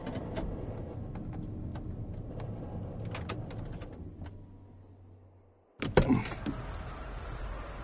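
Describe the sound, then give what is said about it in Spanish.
A car arriving at a house in the mountains: the engine rumbles and idles with small clicks, then winds down and cuts out; a sharp thump like a car door follows, with a steady insect-like hiss in the background. “En cuanto salimos del coche, la puerta se abrió de golpe.”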